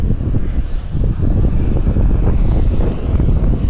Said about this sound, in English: Plus I'm walking a different way to try and stay away from trucks like this one.